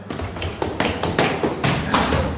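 A smartphone screen being tapped and unlocked: a quick series of about seven or eight light, crisp taps at a steady pace over a constant hiss, with no voices.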